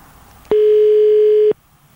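A single steady ringback tone sounds for about a second on an outgoing phone call to a woman, a clear electronic hum that stops abruptly, with quiet line noise before and after.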